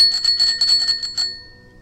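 A small handbell on a baker's cart rings in a quick, rapid burst of about half a dozen bright strikes, clear, then its tone fades away with no voices present.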